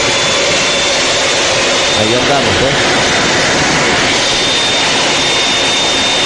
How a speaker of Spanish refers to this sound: Estamos ahora mismo al lado de un una aeronave K-8 surcando los cielos